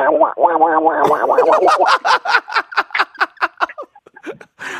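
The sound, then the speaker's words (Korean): A voice imitates a duck, starting with a warbling nasal sound that breaks into a quick, rhythmic string of about a dozen short quacks, fairly loud, with no talking over it. “오리요. 오리, 오리 한번 들어볼까요?”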